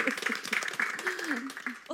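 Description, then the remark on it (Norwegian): A small audience gives brief, steady applause to the speakers after a conversation, many hands clapping in a dense patter at moderate volume, while a voice talks and laughs over it. “Skal vi gi en liten applaus?”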